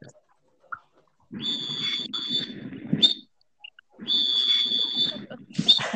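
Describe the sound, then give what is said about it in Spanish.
Someone whistles in two sustained stretches, each about two seconds, with a short pause between. The high, fairly loud tone sits over a rough, breathy low rumble. “deje de estar chiflando”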